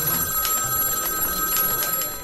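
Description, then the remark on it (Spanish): A telephone bell rings insistently and unanswered in a busy, chaotic room. Its bright metallic tone trills steadily with rapid repeated strikes, fairly loud, with no voices present. “Y ese maldito teléfono sonaba y sonaba.”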